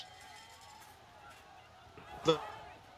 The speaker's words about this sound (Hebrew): כן, אנחנו שומעים ברקע את uh, קולות המחאה.